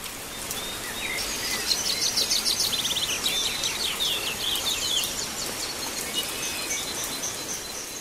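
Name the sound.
bird singing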